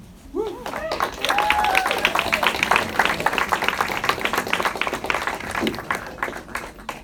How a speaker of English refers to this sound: And can we just give another round of applause to this amazing team?